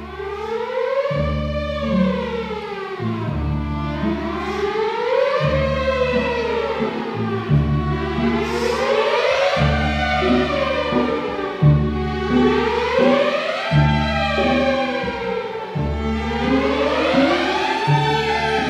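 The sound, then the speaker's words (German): An orchestra rehearsing at the Vienna Konzerthaus plays sweeping rising and falling glissandi that imitate sirens, repeating in slow waves over a steady, pulsing low accompaniment, loud and continuous with no voices. “Und die Sirenen sind eben die Glissandi, die.”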